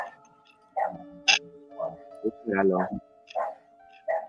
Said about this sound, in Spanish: Espérate que se calle el perro.